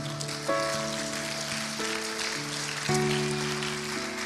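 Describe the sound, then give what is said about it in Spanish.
A church audience claps hands loudly for the Lord during a sermon in a steady, dense wash of applause, heard over sustained organ-like keyboard chords that change a few times. “Dele palmas fuerte al Señor, hermano.”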